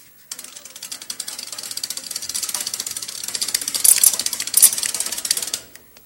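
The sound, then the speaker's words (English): The freewheel of an upside-down bicycle ratchets as its wheel is turned around, a rapid, steady stream of crisp clicks lasting several seconds before stopping abruptly, with no talking. “You can turn the wheels around, you know, and then”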